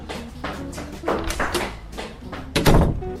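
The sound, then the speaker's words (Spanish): A bathroom door is handled, with several soft knocks and rattles as it opens, then a louder thud as it swings shut near the end. No one speaks. “Al contrario, si buscabas el baño, lo que está al otro lado de esa puerta definitivamente es para ti.”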